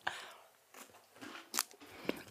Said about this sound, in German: Amicelli. Äh, genau, wir beißen jetzt mal rein.